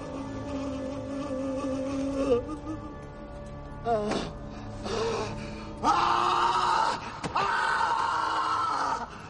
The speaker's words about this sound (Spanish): Los gritos de dolor del capitán por la pérdida de su hijo atemorizan más al enemigo que el atronador sonido de los tambores de guerra.